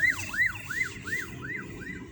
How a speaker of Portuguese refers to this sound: É uma ambulância passando.